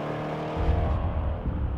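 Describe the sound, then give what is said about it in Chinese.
Two off-road motorcycles start up and their engines rev with a loud, rough rumble that swells, then the bikes pull away, raising dust, as the higher whine fades and a low growl continues. No one speaks. “另外两个人就回到了他们骑的越野机车上，发动了引擎。然后轰轰隆隆的就开走了，扬起了满天的尘土。”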